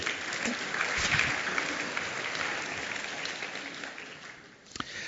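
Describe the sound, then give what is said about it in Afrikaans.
An audience claps steadily for about five seconds, a dense, even patter of many hands that fades slightly near the end before a few last claps. “Dankie, kan ek skiep vir 'n lekker hande klap toe.”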